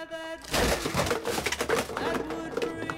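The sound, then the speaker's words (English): A wooden shelf breaks with a loud, sustained splintering crash and clatter lasting a couple of seconds, over a faint steady tonal hum. “I broke a shelf.”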